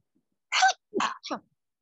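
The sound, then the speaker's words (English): A fairly loud sneeze: a sharp breathy burst followed by two shorter gusty bursts in quick succession, with no talking around it. “Bless you.”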